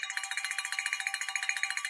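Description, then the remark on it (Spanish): A bright 'fortune bell' sound effect rings rapidly and steadily for about two seconds, high metallic tones pulsing in a fast even tremolo, with no voices. “Carlito saca la campana de la fortuna y suena la Carlito.”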